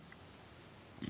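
A short, low, guttural burp erupts near the end after a stretch of quiet background hiss, fairly loud, with a grunting, throaty quality.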